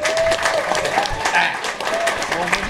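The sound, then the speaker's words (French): Steady applause from a crowd, a dense wash of clapping that holds for the whole stretch while a voice talks over it. “Je veux les, je veux les Bonne main d'applaudissement.”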